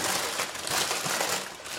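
A pastry bag holding Franzbrötchen is opened, rustling and crinkling steadily for a couple of seconds, a dense, papery crackle with no voices over it.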